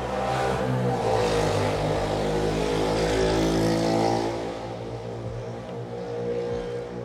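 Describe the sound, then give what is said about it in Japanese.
A loud motorcycle engine roars past outside, its throaty drone swelling over the first few seconds, then easing off as it moves away, still rumbling at the end. No one speaks. “すいませんすっごいバイク通ってましたね”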